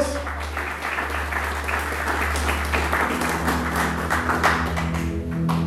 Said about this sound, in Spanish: Alguien dice amén, por favor, en esta mañana y le dan fuerte aplauso a nuestro Dios.